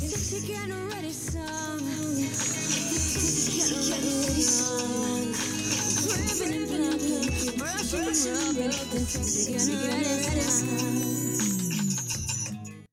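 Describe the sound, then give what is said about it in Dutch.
A loud, continuous stretch of a comedic musical number, with a singing voice over a full band backing, playing steadily for about thirteen seconds. “Ik ga altijd korte stukjes gewoon laten horen.”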